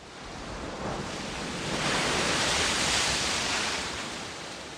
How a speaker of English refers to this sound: The waves of the Pacific Ocean roll across the beaches of California. By every reckoning, the world's biggest ocean, it's about 170 million square kilometers.